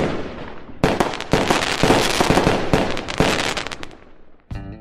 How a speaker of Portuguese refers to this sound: E graças a Deus o programa acabou. Som de fogos, por favor, nesse momento.